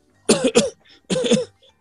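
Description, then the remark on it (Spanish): Two loud coughing fits, each a quick double hack, separated by a short pause with faint breathing; no talking. “eh, el médico le dice, parece que su tos está mejor.”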